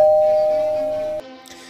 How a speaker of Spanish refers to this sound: En ese momento, el timbre de la puerta sonó.